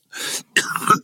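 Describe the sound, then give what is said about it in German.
Two harsh coughs, the first a bit softer and the second louder and raspier, with no talking. “Entschuldigung gehustet.”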